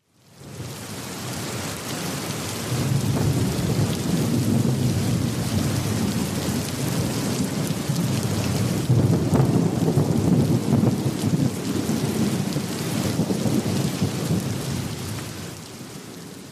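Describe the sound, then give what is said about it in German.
A thunderstorm with steady heavy rain and deep rolling thunder rumbling throughout, loud, with no voices. “Also mein Wunsch war, dass das Geräusch einen Sturm darstellt.”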